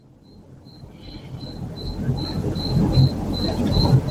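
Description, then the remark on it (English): Coquí frogs call in a steady series of short, high chirps, repeating about twice a second, while a low rumbling background swells louder over the few seconds. “Angel is a man that knows all about the Coquí frogs.”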